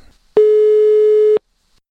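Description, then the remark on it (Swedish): A single steady telephone ringback tone of an outgoing call to a worker at the game studio Coffee Stain Studios in Skövde sounds for about a second, loud, with a flat electronic hum and brief silence before and after. No one speaks. “Vi ringer upp Anton som jobbar på Coffee Stain Studios.”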